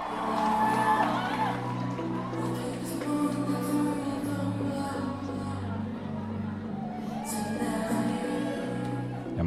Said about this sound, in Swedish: man hör jubeln i bakgrunden. Jag tror att hon ändå bidrog med att det blev en sån eh, kalasstämning helt plötsligt.